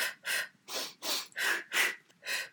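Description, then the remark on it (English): Seven quick, sharp breaths drawn in through the nose in a steady rhythm as a breathing technique for jogging, each a short airy rush, with no talking. “So two in through the nose and, and two, two out. out through the mouth.”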